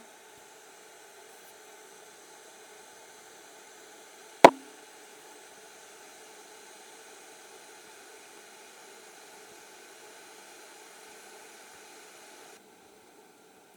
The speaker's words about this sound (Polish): Coś zaczyna się już dziać. Może będzie słychać szum gotującej się wewnątrz wody, ale na pewno usłyszycie przelewanie się kawy e, z dolnego naczynia do, mm, do górnego.